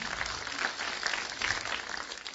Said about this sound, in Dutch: Ja, geef nog maar een applaus aan de Heer.